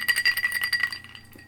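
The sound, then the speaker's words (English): A glass of chartreuse clinks and rattles as it is sipped from: a quick flurry of bright, ringing taps, a faint high tone lingering as the clatter thins out and fades toward the end. No one speaks. “Just take a sip. I got my chartreuse.”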